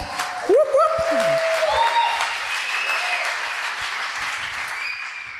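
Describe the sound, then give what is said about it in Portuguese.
An audience breaks into sustained applause, a dense wash of clapping that holds steady for several seconds, with a few brief whoops and tonal cheers rising above it near the start. “Give this young lady a clap.”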